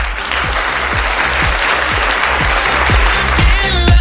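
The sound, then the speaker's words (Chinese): A crowd applauds in a dense, steady wash of clapping, with a regular low thumping beat underneath about twice a second, swelling slightly louder toward the end. “让我们现场的所有朋友们用鲜花和掌声有请导师…华丽登场。”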